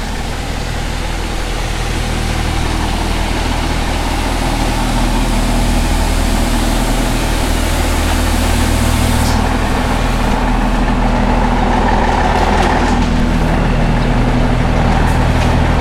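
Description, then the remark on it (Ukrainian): A loud, steady mechanical hum from an old portable Panasonic radio receiver lying on a table and switching itself on, a dense low rumble with a hissy upper layer that drones on unbroken, shifting slightly in tone partway through, with no voices. “Він сам включається і починає шуміти. І це такий моторошний звук,”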